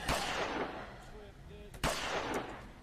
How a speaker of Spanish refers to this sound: Terminan llegando con el señor, se escuchan unos disparos en la lejanía